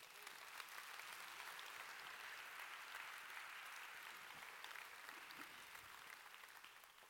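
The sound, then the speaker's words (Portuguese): A crowd at a sermon claps steadily for several seconds in applause for Jesus, a dense, even wash of applause that holds at a constant level and fades only slightly at the end, with no voices standing out. “Quem pode dar um aplauso a Jesus por isso?”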